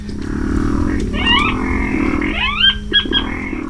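Squealing, grunting calls of a saracura-sanã rail, a pig-like duet of male and female with rising and falling squeals over a low droning background, with several bursts around the middle and end, moderately loud.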